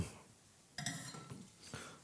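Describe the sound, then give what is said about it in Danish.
Wine glasses being swapped, with three light, bright clinks of glass set down at uneven intervals, the first a little sharper and ringing, over a quiet background with no talking. “så nu skal jeg synes, at skifte glas her.”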